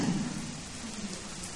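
Steady rain falls with a soft, continuous hiss and patter, fairly quiet and even throughout, with a faint low rumble underneath and no voices.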